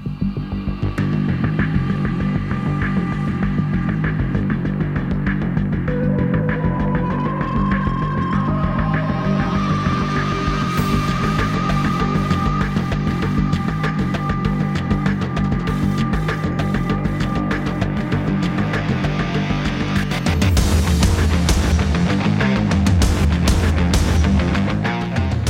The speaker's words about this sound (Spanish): Vamos a poner un poquito de música para presentar el tema.